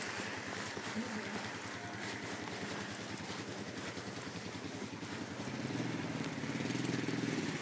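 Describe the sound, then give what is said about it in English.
A four-wheeler with a snow plow drives by on snow in a suburban place, its engine droning steadily with a low, pulsing rumble, swelling louder toward the end as it passes, with faint rhythmic crunching of boots underneath. “It's really peaceful and nice. Except for this four-wheeler snowplow in front of me, which is very, some, very something.”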